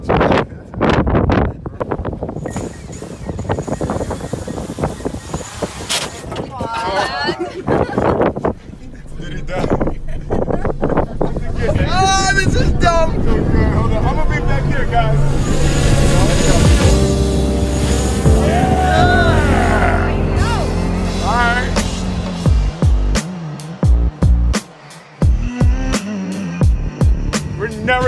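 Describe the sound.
A small drone being launched: its motors spin up into a loud, steady buzzing whine that wavers in pitch as it flies, mixed with gusty wind rumble and occasional indistinct voices.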